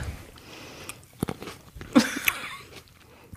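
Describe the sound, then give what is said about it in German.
Wet smacking and crunching of someone chewing grapes right at the microphone, a few moist clicks and bites in irregular bursts, with no talking. “Magst du auch ins Mikrofon was schmatzen?”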